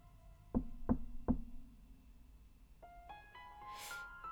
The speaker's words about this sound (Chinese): 老爷爷看书看得正入迷呢，忽然就听到有人敲门。